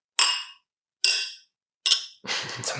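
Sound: glasses clinking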